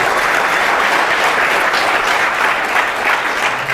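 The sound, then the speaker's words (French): A church audience applauding steadily in the morning to receive five people who have committed to follow Jesus, a dense wash of many hands clapping at once, loud and sustained throughout with no voices standing out. “Est-ce qu'on peut les applaudir ce matin, ces cinq personnes-là, pour les recevoir?”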